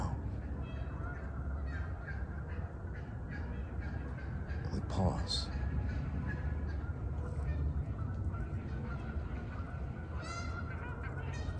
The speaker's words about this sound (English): then we hear the geese